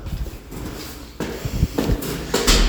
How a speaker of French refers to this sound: Oh, j'ouvre une porte.